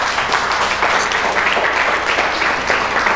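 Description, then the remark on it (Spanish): An audience breaks into steady, loud applause given to God, many hands clapping at once in a dense, continuous wash of sound that holds evenly for the whole few seconds. “Dele pues un aplauso a Dios.”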